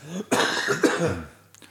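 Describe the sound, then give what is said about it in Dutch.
A loud cough bursts out in two harsh, breathy pushes, followed by a brief quieter throat noise at the end; no speech is heard. “Even zo, je hoest.”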